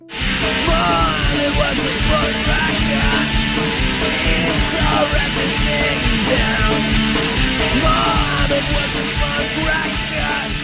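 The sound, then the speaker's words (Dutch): A loud, dense Taqwacore punk rock song, sung by a Muslim with a mohawk, with lyrics: a raw shouted vocal over distorted guitars and pounding drums, driving without a break from start to finish. “…, wordt hier gezongen.”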